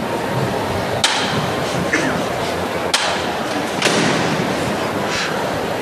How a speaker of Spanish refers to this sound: agachado frente a la delantera de Palio, suena el martillo.